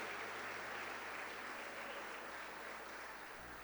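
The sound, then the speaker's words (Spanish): An audience at a church service applauds as an offering of applause to God, a dense wash of many hands clapping together that holds at an even level for several seconds before easing slightly at the end. “Damos fuerte esa ofrenda de palmas a nuestro Dios, hermanos.”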